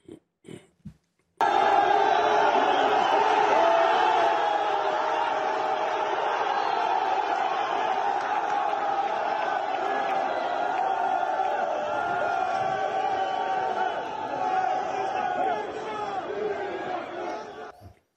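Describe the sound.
A large crowd in Antwerp, Belgium, cheers and shouts continuously as a Moroccan supporter takes down a Belgian flag, a dense roar of many voices with scattered whoops rising above it, starting abruptly after a brief quiet moment and holding loud throughout.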